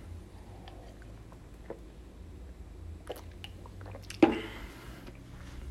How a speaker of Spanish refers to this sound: Entonces, sí, o sea, este, déjenme tomar agua.